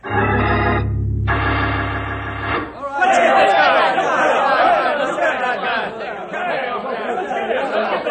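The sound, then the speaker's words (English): A low droning tone gives way to a loud, agitated crowd of men shouting and clamoring over one another, a dense, continuous hubbub that stays heated throughout. “You men, quiet down and listen to me.”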